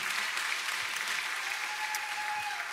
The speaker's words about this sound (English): And I just want to say thank you. Come on, let's give one huge hand clap to all the dads in the room.